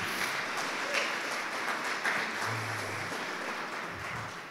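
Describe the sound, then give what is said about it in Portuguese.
Loud, sustained applause for Jesus from an audience, a dense wash of many hands clapping steadily for several seconds without pause, with no voices standing out. “Então vamos aplaudir Jesus bem alto por conta disso?”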